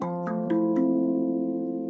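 A heavy metal bell is struck hard with a big sledgehammer several times in quick succession by a thief trying to smash it, each blow a sharp clang, leaving a loud, steady ringing hum of deep overlapping tones.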